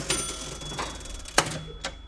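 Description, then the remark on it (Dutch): A cash register drawer opening: a sharp mechanical clunk, a short rattling slide, then a second click, moderately loud, with no one talking. “Ik heb ook een prachtige kassa gekregen die ook echt eh, oh,”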